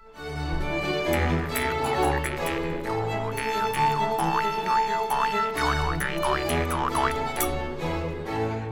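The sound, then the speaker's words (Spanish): Springy, boing-like plucked notes bend and wobble over a steady musical backing, landing loud in an uneven, off-beat pattern that clashes with the rhythm. “los ploin ploin iban con la música, pero después Hans tocaba sin ton ni son”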